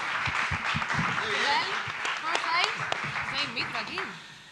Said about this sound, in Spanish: Fuerte aplauso a Clara Alvarado, por favor.